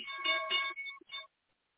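A short electronic alert tone plays a quick bright melodic chime of stacked harmonic notes, loud, lasting just over a second before cutting to silence. The tone signals the market opening.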